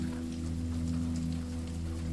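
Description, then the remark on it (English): Steady rain falls continuously, a dense even patter with a low constant rumble beneath it, moderately loud with no pauses. “Crackles and pops of the burning dry logs join the steady sound of rain.”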